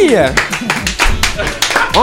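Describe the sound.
Hands clap in a quick, slightly uneven burst of about eight sharp slaps, loud and steady, while voices talk over the applause.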